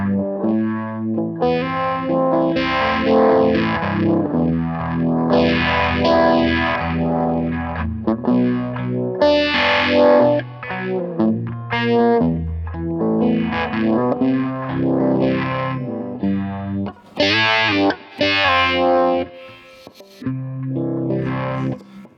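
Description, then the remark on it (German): An electric guitar plays continuously through a Classic Vibe setting mixing phaser and chorus, with some distortion, its tone sweeping up and down in waves. Sustained chords and notes ring out loudly, with no one talking. “ja, also wie gesagt, da haben wir dann halt auch ein bisschen Verzerrung drin.”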